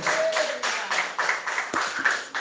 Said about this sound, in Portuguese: Com as palmas bem alegre, mais alegre para Jesus.